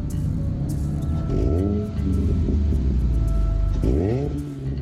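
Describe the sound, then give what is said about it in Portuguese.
A white car's engine rumbles steadily as it turns into Rua Joaquim Palhares in Estácio, Rio de Janeiro, revving twice with rising, surging pitch as it accelerates, the low drone continuing throughout with no voices. “Quando o carro virou na rua Joaquim Palhares, no Estácio, outro veículo emparelhou a menos de dois metros e baixou o vidro.”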